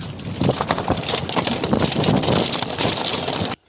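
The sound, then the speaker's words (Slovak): A car drives over a stony road toward the municipal sauna, with continuous gravelly crunching and rumbling, bursts of scraping against the undercarriage, and wind buffeting the microphone; loud, ending abruptly. “Takto znie kamenná cesta smerom na obecnú saunu. Hrozne mi škrípe o podvozok.”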